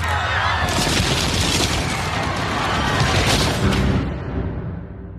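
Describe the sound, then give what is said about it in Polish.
A sound-absorbing wall panel topples over onto the people beside it with a loud crash, followed by several seconds of dense rumbling clatter that gradually fades near the end. “ściana dźwiękochłonna spadła nam na głowę”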